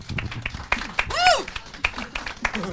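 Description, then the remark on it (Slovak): Scattered, irregular hand claps, sharp and crisp, about a dozen in under three seconds, with a brief rising-and-falling whoop in the middle, during a clapping contest at the New Spirit bar. “Súťaž v potleskoch, ideme na to.”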